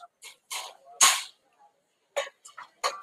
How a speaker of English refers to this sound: And no, folks, the, the cough that you're hearing, I am not sick. I'm not uh, any of those things. This is a side effect of the chemo medication I'm on and it has decided to expel some of the bad stuff that's in my lungs, so it's making me cough